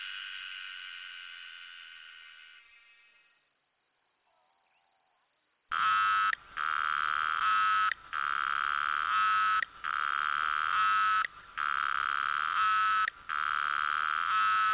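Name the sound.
cicada song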